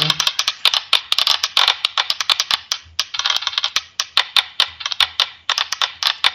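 A die is thrown down a staircase, clattering and tumbling in a long run of rapid, irregular hard clicks that keep going for several seconds. Fairly loud, with no voices.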